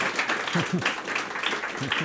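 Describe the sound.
An audience applauds steadily, a dense, continuous patter of many hands clapping with a few voices calling out underneath.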